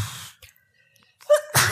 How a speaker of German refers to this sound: Gesundheit. Gesundheit.